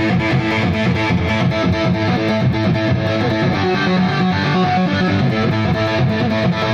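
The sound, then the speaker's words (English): A loud, heavily distorted electric guitar plays a steady riff with a thick, buzzing tone and dense harmonics, sustained at a consistent volume throughout with no talking. “But anytime he picks up the guitar, man, the fun just starts.”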